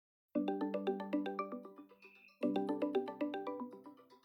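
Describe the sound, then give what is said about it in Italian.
An outgoing call ringing tone plays from a Google Home Mini smart speaker placing a Duo call, in two bursts of about two seconds each, every burst a rapid, warbling chain of electronic pulses with a short pause between them. “In questo momento ho avviato la chiamata utilizzando un Google Home Mini.”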